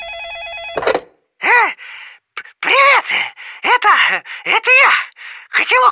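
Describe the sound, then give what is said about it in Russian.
A short burst of electronic telephone ringing in a home kitchen at the very start, followed by a series of breathy vocal sighs and groans from voices. “Дома мы, на кухне Не работает лекарство, а звонит телефон”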